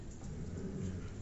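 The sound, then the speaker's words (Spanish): Steady, dense hiss of rain with a low rumbling undertone, constant throughout the short stretch, heard at a workshop, with no voices. “Ay, disculpen los perros, ya saben que pues estamos en un taller, este, y ahora no sé qué traen, la lluvia las alborotó.”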